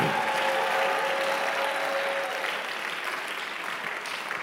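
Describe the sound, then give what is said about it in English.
An audience claps steadily and loudly to give praise to Jesus, dense applause, with faint cheering voices mixed in and a brief sustained tone in the background. “If you are that person, give Jesus a better praise and a clap him.”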